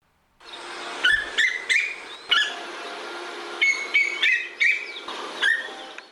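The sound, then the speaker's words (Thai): A female koel gives a rapid series of short, shrill, piercing call notes in two clustered bursts, loud over a steady background hiss, with no talking. “ถึงเวลาหาคู่ก็ส่งเสียงร้องดังที่เราได้ยินกันค่ะ และเสียงร้องกาวว่าวกาว่าวเนี่ยเป็นเสียงของนกตัวผู้ค่ะ ส่วนนกตัวเมียจะส่งเสียงร้องแบบนี้ค่ะ”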